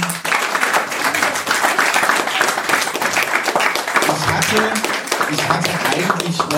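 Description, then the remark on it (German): Steady, dense applause from many hands, a loud continuous crackle of claps that holds its level throughout. A voice briefly sounds faintly beneath it partway through. “Ich hatte eigentlich, ja, gerne noch Applaus.”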